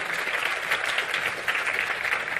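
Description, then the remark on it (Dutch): A crowd of people in The Hague clapping steadily as a loving welcome, a dense, even wash of applause that holds at the same moderate level throughout without pause. “Zullen we even welkom heten met een liefdevol applaus.”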